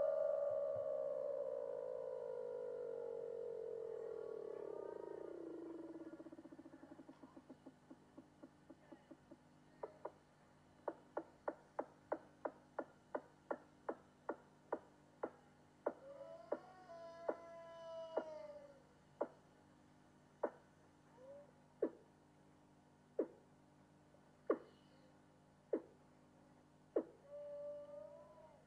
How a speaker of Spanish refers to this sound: Ahora vamos a escuchar los llamativos sonidos de la foca de Weddell.